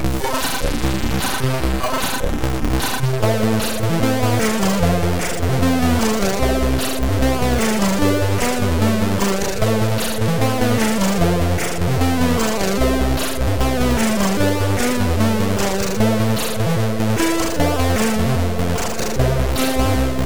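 The original 1986 music track of the video game Storm plays throughout, with buzzy synthesized square-wave tones, a bouncing bassline and fast arpeggiated melody lines at a steady, loud level and no voices.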